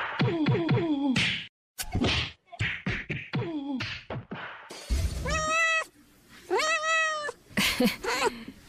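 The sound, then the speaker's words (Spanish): A cat meows repeatedly, a run of loud, drawn-out cries with short pauses between them, and a brief sharp knock partway through. “Era un gato el canalla que se fue.”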